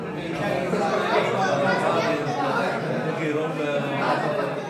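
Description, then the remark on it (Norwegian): A steady murmur of many overlapping voices fills a venue in the town of Akranes, where a couple of hundred people have gathered to hear Prime Minister Bjarni Benediktsson of the Independence Party. Dense crowd chatter at moderate loudness with no single voice standing out, continuing evenly throughout. “I et lokale i byen Akranes har et par hundre mennesker møtt opp for å høre statsminister Bjarni Benediktsson fra Uavhengighetspartiet.”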